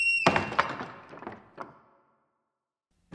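A front door thuds shut with a brief metallic ring, followed by a few clunks and rattles as it is locked. Then silence, and a soft thump at the very end.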